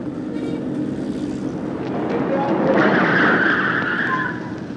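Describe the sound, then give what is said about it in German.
A taxi's engine revs up as it pulls away with a rising screech of skidding tyres, loud, the squeal peaking midway before easing off. “Diese Taxe fuhr mich geradewegs in mein Schicksal hinein.”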